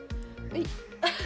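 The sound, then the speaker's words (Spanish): A few harsh, breathy coughs come in quick succession, fairly loud, with the last one the strongest. “Salud. Ah, no, tos.”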